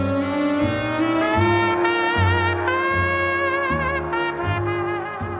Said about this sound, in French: Ce que vous venez d'entendre, c'est l'une des premières apparitions du ténor dans l'orchestre